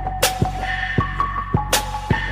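A music track with a steady, booming kick drum pulsing about twice a second under sustained electronic tones, punctuated by a couple of sharp, bright hits. No vocals.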